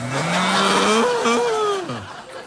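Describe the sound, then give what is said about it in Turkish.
A cow in the mountain villages of Bayburt lets out one long, loud moo lasting about two seconds, its low droning pitch rising slightly then sliding down as the call fades at the end. “Aşağı inen ekip arkadaşlarımız anlamsız bir şekilde möğleyenli inek melül melül bize bakmakta.”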